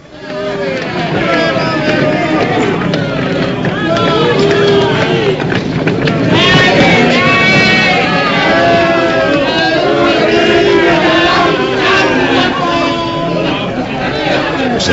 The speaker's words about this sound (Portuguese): Jesus é açoitado impiedosamente ao som dos berros ensurdecedores do povo